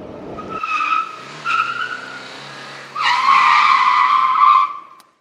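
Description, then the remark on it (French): A motorcycle ridden by a young woman across a hot, dry desert in Afghanistan in 1973 revs and its tires skid: two short squealing bursts over a low engine drone, then a longer, louder skid that cuts off abruptly, with no voices. “La fille à la moto”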